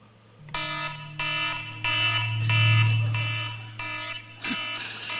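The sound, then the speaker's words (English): An alarm clock, also used as a stopwatch, rings in repeated harsh, buzzy bursts, about five pulses in a steady rhythm, loud, with a low hum running underneath and no talking. “That is my alarm that I use for both a stopwatch and an alarm clock, uh, I, but I never hear it because it grates on me.”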